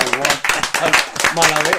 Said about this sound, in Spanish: bueno, un aplauso para el